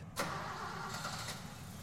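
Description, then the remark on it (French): Milan starts a car's engine: it cranks and catches with a sharp burst, then settles into a steady low rumble, with a brief extra rev near the end. No one speaks. “Milan fait démarrer le moteur et dit simplement On a une longue route.”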